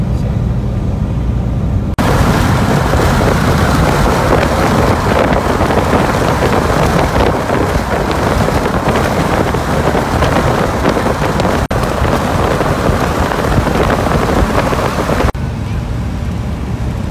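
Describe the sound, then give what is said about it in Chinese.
Steady, dense rain falling outside makes a loud, continuous hiss that fills the whole recording, briefly thickening and brightening for most of its length before easing slightly near the end. “现在外面下雨，这边雨水就比加州多很多。”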